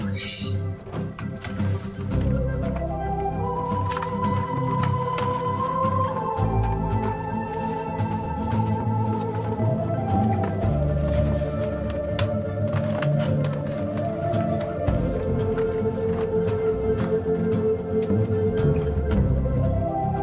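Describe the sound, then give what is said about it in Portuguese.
An upbeat film score plays steadily, a bright melody gliding over full accompaniment, with scattered background sounds and clicks from the scene mixed in throughout, as the track was taken directly from the film. “essa faixa os ouvintes ouviram alguns sons ao fundo, porque a gente tirou direto do filme.”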